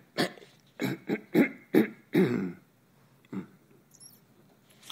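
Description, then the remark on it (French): A quick series of five or six rough throat-clearing bursts in an uneven rhythm, followed by a pause and a couple of fainter, softer rasps; no one speaks. “un petit chat dans la gorge, désolé.”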